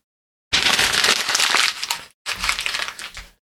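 Paper is crumpled into a ball in two loud bursts of dense, crackling rustle, the first about one and a half seconds long, then a short pause before a second, slightly shorter burst. No one speaks.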